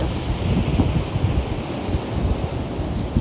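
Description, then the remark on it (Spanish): Steady roar of ocean surf on a beach in Mexico with gusting wind buffeting the microphone, a continuous dense wash of noise with no voices. “Hoy nuevamente les vengo a hablar desde México, desde la playa, escuchen el mar, escuchen el viento.”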